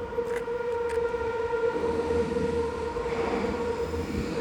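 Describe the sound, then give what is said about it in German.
A subway train climbs a 5% incline near Mönkedamm in the city centre, grinding steadily along, a sustained droning whine over rumbling wheels, with a couple of brief metallic clicks early on; loud, no voices. “Ich meine, hier hat die U-Bahn eine Steigung von 5%.”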